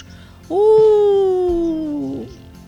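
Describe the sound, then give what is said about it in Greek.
A single voice imitates a wolf's howl, one long sustained note of nearly two seconds that drifts slowly downward and wavers at the end, fairly loud, with no other sounds around it. “Δεν το θέλω, καλέ μου φίλε, αλλά όταν ακούω το λύκο να ουρλιάζει μέσα στη νύχτα, πάντα γαφίζω.”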